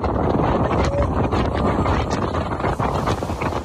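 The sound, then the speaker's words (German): Loud, constant wind buffeting a microphone during a ferry ride to Isla Mujeres, a dense low rumble with gusty bursts, over faint engine and water noise. “Eigentlich wollte ich euch jetzt an dieser Stelle voll die Boat Trip Vibes geben, ähm, aber für gescheite Aufnahmen war es dann doch ein bisschen zu windig.”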